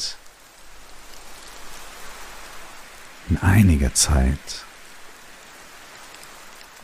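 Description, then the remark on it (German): Steady rain and wind, the rain hissing evenly throughout, a soft, constant wash of falling water, with a voice briefly speaking over it midway before the rainfall carries on alone. “weißt, dass dieser Regen und dieser Wind”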